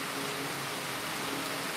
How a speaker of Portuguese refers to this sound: Olha a chuva, tá vendo? Chuvarada no Recife.